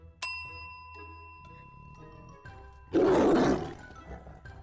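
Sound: tiger roar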